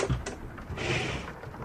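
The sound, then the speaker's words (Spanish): A sliding compartment door along a narrow train corridor rolls open: a couple of quick knocks and clicks at the start, then a smooth, rushing slide lasting about a second, moderately loud. “Comenzó a caminar por el estrecho pasillo bordeado de ventanillas negras por su lado izquierdo y por las puertas correderas a su derecha. Abrió la primera.”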